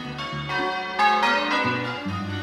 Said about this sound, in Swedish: Eller så ringer kyrkklockan från det att du vaknar till att du somnar i månader som aldrig tar slut.